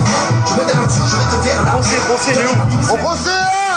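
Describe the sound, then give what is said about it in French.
Loud, continuous din of many prison inmates at Fleury shouting and calling over one another, with rising whoop-like cries near the end and scattered dull knocks of inmates banging on their cell doors buried in the noisy, echoing chaos. “le bruit, la musique, les gars qui tapent sur leur porte pour un rien.”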